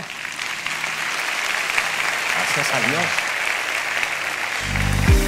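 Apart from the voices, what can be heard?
audience applause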